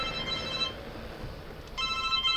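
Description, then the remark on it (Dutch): A telephone rings in two bursts of bright, warbling tones, pausing briefly in between, moderately loud over a faint background hum. “telefoon.”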